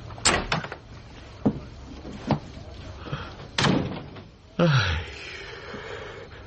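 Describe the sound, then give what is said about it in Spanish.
A door is opened by a man who has just picked up his coat and hat, amid a few sharp knocks and clunks, followed by a louder thud with a low creaking groan, while faint voices murmur in the background. “Le sonríe y se dirige a la puerta. Chesterton sonríe. Jack coge el abrigo y el sombrero y abre.”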